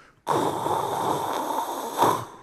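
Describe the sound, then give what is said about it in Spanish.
A voice imitates the white noise played by the privacy button on a toilet's control panel: a steady, breathy rushing hiss held for about two seconds, fairly loud, swelling slightly just before it stops. “Tiene un botón que dice privacy, privacidad le picas ese botoncito en el mando que tiene a un lado la taza de baño y suena ruido blanco”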